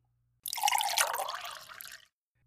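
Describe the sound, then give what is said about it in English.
Coffee pours steadily into a cup for about a second and a half, a clear splashing trickle whose pitch shifts as the cup fills, then stops abruptly. No voices. “So please, pull up a chair, let's pour you a cup of coffee, and let me share a bit of advice that I gave a student.”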